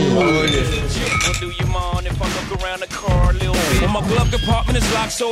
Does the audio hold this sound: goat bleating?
no